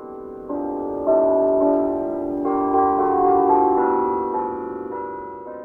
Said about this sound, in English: This week's Sound of Meeker, the St. James Church Bell.